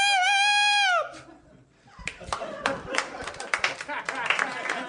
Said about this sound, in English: You guys are you guys are clapping wearily like anyone asked you to clap.